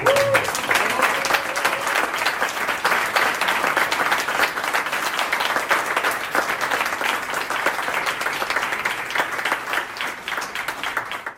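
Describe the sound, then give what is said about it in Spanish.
An audience applauds for Gastón Antonio, a dense wash of many hands clapping that holds at a loud, even level for about eleven seconds before easing slightly at the end. “Quisiera pedir, Gastón no ha podido venir, pero quisiera pedir, lo vamos a grabar, un aplauso para Gastón Antonio.”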